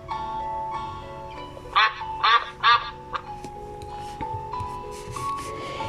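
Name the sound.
duck quacking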